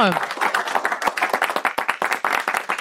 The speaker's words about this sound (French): Bravo à tous nos acteurs résidents, on peut les applaudir.